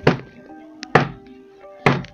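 Three heavy, dull thuds of someone banging on top of a car roof, heard from inside the car, evenly spaced about a second apart, with a low resonant ring lingering after each blow. No one speaks.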